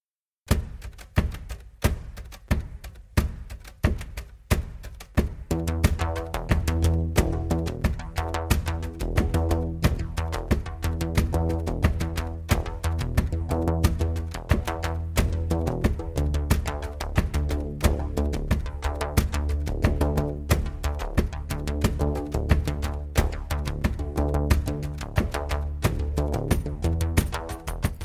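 A post-rock song with electronic touches: sharp rhythmic clicks open on their own, then warm sustained chords and a deep bass swell in and carry on under a steady, driving beat. No vocals.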